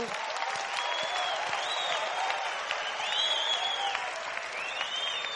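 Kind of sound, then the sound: crowd, weak applause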